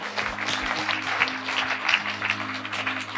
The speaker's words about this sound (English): Can we give a round of applause for people who just made that decision?